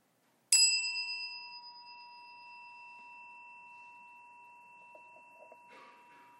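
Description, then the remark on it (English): A single meditation chime is struck once, ringing out clear and bright, then sustains in a long, slowly fading tone for several seconds. Faint rustling comes in near the end. “As we listen to the chime, let us remember our connection to each other and to the world around us.”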